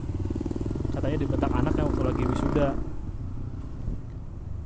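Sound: motorcycle passing outside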